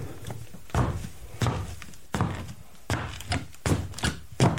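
Foley footsteps climbing wooden stairs in shoes: about seven heavy, evenly spaced steps with a hollow thud on each, moderately loud with no voices.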